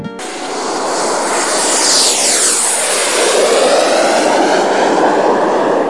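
A loud, steady jet airplane engine roar fills the scene, its high whine sliding downward as the aircraft passes, with no voices present.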